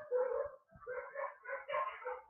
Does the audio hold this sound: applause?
no